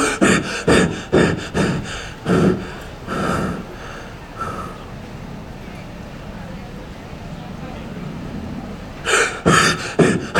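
Irregular snoring from typical obstructive sleep apnea: a run of rough, snorting breaths, then about four seconds of near silence as breathing stops, ending in loud gasping snorts as the upper airway opens and breathing resumes.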